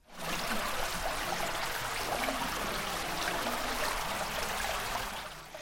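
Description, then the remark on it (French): A steady rush of flowing water from tiny underground rivers deep in a cave runs continuously at an even, fairly loud level with a faint trickling texture and no voices. “De minuscules rivières d'eau souterraines creusées dans les profondeurs de la grotte coulent sur les 200 mètres du côté gauche de la route du vent.”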